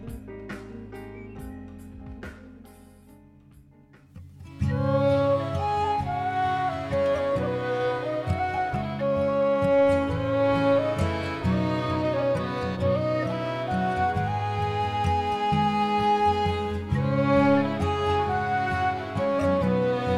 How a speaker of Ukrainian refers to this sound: А поки музика.